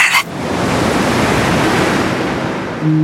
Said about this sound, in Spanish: Y mi tercer gran amor suena a olas rompiendo en los arrecifes, a burbujas sosegadoras bajo el agua